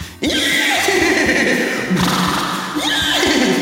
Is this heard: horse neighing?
yes